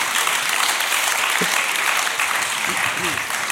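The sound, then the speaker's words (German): Steady audience applause, a dense wash of many hands clapping at an even, loud level throughout, with a few faint voices briefly audible underneath. “Da wird so. aber geklatscht.”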